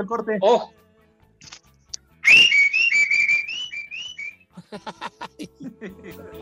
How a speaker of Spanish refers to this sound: ¿Puedes cantar o nada más las chiflas, norteño? No, no, no, amigo, en distintos tonos.